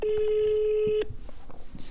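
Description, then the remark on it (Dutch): A single steady ringback tone sounds for about a second on an outgoing phone call to Paul Cliteur, then cuts off abruptly, leaving faint background noise and a few soft clicks. “Ik ga hem even bellen.”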